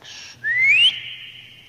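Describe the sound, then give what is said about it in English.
A single sharp whistle sweeping upward in pitch, the Grinch whistling to call his dog Max, loud, preceded by a soft breathy hiss and trailing off into a faint airy tail. “Then he loaded some bags and some old empty sacks on a ramshackle sleigh, and he whistled for Max.”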